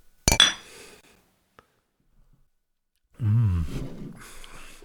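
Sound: beer glasses clinking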